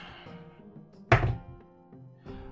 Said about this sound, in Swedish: Men jag ska slå en eh, tärning för att se hur vältalig han är.